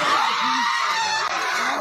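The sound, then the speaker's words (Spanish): A woman screams in anguish, loud, a harsh, sustained cry that fills the whole stretch without pause, with no clear talking alongside, as her young niece is carried from the rubble in the La Esneda neighbourhood of Dos Quebradas, Pereira. “Los gritos son estremecedores.”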